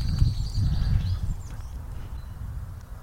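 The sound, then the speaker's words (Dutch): A blue tit calls from within vegetation with thin, high notes during the first second, fairly faint, over a steady low rumble of wind or outdoor background noise. “De Een pimpelmees zit er doorheen te blaren.”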